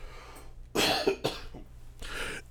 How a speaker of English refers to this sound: Let me get my throat clear before I start coughing.